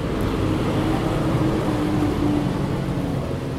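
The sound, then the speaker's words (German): A tractor drives past outside, its engine rumbling steadily, a heavy low drone with a faint whining tone, holding a constant, fairly loud level throughout with no voices. “der Traktor ist vorbei.”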